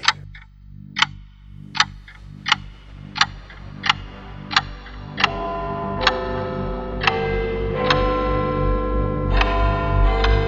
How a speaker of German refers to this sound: Du hättest das Ticken machen müssen.